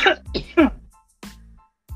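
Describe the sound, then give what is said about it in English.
A harsh coughing fit after a hit from a small bong: three quick raspy coughs in a row, then a pause and two more throaty coughs, loud, with no talking. “I think this is my first coughing fit on live.”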